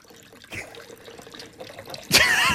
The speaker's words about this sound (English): is pouring his water.